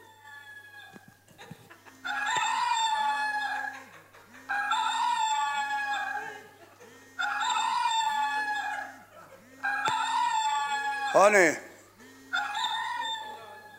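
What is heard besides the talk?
rooster crowing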